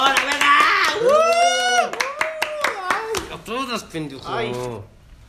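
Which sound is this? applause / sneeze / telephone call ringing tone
applause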